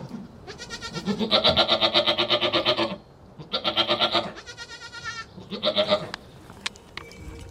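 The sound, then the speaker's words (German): Several goats bleat loudly in a string of long, wavering cries, overlapping one another with brief pauses between calls. “Die älteren Ziegen behalten ihre Lämmer und werden trotzdem morgens und abends gemolken.”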